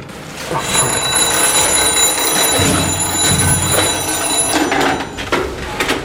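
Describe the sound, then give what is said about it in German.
A telephone rings loudly and steadily with a bright electronic trill for about four seconds, then cuts off, followed by a few brief clattering handling noises. “Jetzt weiß ich nicht, wo das Telefon ist.”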